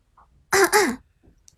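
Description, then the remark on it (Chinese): A single loud, voiced two-part cough, like a deliberate throat-clearing "ahem", lasting about half a second and standing alone, followed by a few faint clicks. “没等旺财说完，杜鹃就咳嗽一声说道”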